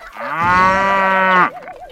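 A cow lets out one long, loud moo, holding a steady droning pitch before breaking off abruptly, followed by a faint wavering tail. No voices are heard.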